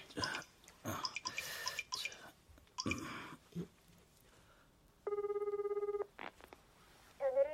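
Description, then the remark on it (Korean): As a phone call is placed, a telephone ringing tone sounds once as a steady, buzzy one-second ring, preceded by a few seconds of irregular rustling and clattering noises, and followed by a short rising electronic tone. “지금 당장 전화 넣어볼게요.”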